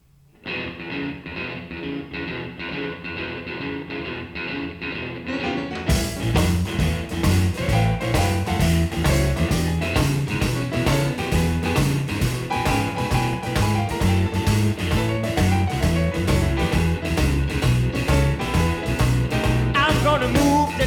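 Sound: song intro playing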